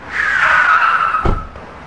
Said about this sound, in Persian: پیرمردی صبح زود از خونش بیرون اومد بین راه با یه ماشین تصادف کرد و آسیب دید